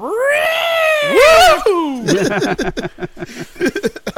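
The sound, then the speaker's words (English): A voice imitates the robot droid R2's electronic scream: a loud, two-second wail that warbles high in the middle and slides down, followed by choppy chatter and laughter. “part of that entire thing is when R two screams.”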